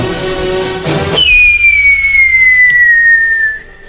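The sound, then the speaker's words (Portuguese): A person imitates a firework rocket: a brief breathy hiss, then one long, loud whistle that glides slowly downward in pitch for about two seconds before cutting off. “Você vai só ouvir, você não vai ver aquelas luzes dos fogos.”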